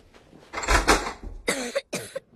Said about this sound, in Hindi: उस कमरे में इतनी धूल जमी हुई थी कि दरवाजा खोलते ही कुछ धूल हमारी नाक में चली गई हम खांसते खांसते अंदर गए